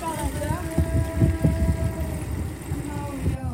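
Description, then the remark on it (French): A motorcycle arriving from Québec rumbles, its low engine growl rising and falling with a few revving pitch swells before it settles, with faint indistinct voices in the background. “qui est en train de venir à notre rencontre depuis Québec avec sa moto.”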